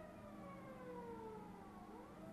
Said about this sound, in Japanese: なんか今消防車も通ってて消防車も通ってていろいろ最悪だったんですいません